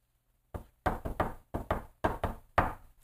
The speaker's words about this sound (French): C'est quoi ce bruit-là? Hein? Le connaissez-vous? Là, je ne l'ai plus, Ça, c'est le, bruit en tam-tam quand on fait du djembé pour dire, OK, on change de beat. Pra, pa, pa, pa, pa, quelque chose comme ça.